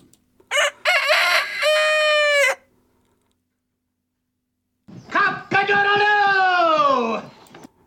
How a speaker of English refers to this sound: All right, cock a doodle doo is how Americans imitate the sound of a rooster. We say cock a doodle doo.